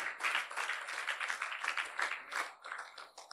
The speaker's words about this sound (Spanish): Ahora, todos aplaudieron, pero nadie dijo nada.